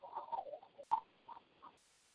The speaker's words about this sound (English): I mean, I don't hear feedback on my end of the deal. I'm not hearing the feedback, but I'm hearing like static squishing.